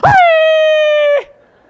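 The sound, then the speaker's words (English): A voice imitates a woman's high-pitched scream of fright on a plane: one loud, sustained squeal that jumps up sharply, holds a steady piercing pitch for about a second, then cuts off abruptly. “She screamed that high squeal.”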